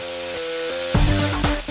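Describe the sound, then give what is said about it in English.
A burger patty sizzles in hot oil, a steady hiss that swells into a couple of louder crackling bursts partway through, with a faint low hum underneath and no talking. “nice sizzle.”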